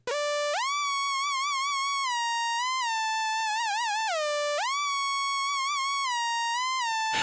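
A bright, buzzy synthesizer lead plays alone, holding long sustained notes with wobbling vibrato and swooping up into pitch at the start and again midway. It is loud and steady throughout.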